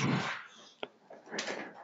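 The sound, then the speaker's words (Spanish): A door is shut with a single sharp knock-like thud, surrounded by soft rustling and shuffling noises before and after. “Acabo de cerrarla porque hay, hay sonidito afuera, entonces...”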